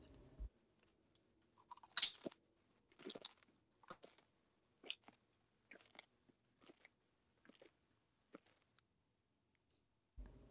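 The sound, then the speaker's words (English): Crisp crunching of cheddar and sour cream potato chips, a sharp first bite followed by seven or eight softer chewing crunches at a steady, slightly irregular pace, with quiet pauses between and no talking. “Can someone do like a good crunch for me just to have like, you know, have it sound be captured for our podcast?”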